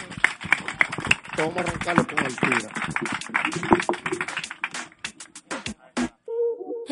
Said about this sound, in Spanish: Muchísimas gracias y un fuerte aplauso a estos cuatro cracks.